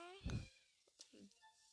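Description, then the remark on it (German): A cat running wild lets out a brief, tonal meow, followed by a dull thump and a few soft scattered noises amid otherwise quiet. “Meine Katze rast wieder aus.”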